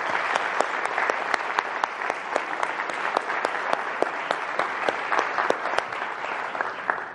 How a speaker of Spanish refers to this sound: pero eh, los admiro un montón, así que démosles un último fuerte aplauso a ellos.